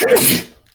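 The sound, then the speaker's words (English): A single loud sneeze bursts out sharply with a breathy, hissing spray and cuts off abruptly, leaving quiet afterward. “Bless you.”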